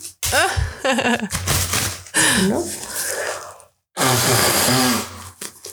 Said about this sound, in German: Okay, warte kurz zum Thema, weil ich muss einmal kurz die Nase putzen.